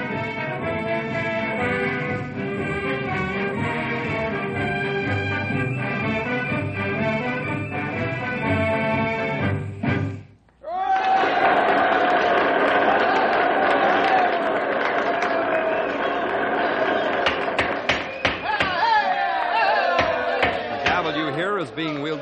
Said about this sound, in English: Right now, the Knotty Pine High Band is stirring the spirit of the occasion with the Stars and Stripes March. Listen to them give their instruments all they've got.